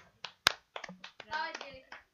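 A short run of hand claps, about eight or nine sharp, uneven slaps over two seconds, one much louder than the rest, with faint voices mixed in partway through.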